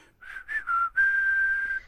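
A person whistles a brief melody up close, three quick rising and falling notes followed by one long sustained tone, clear and steady with no talking.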